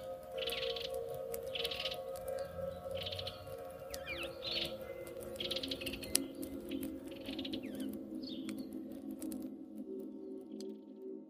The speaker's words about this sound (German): Sie bauten ihr Zelt auf, machten ein gemütliches Feuer und lauschten den friedlichen Geräuschen des Waldes, bevor sie schlafen gingen.